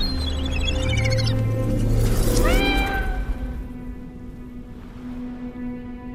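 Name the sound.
cat meowing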